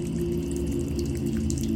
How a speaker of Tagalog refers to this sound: Pero narinig kong bukas ang gripo sa banyo.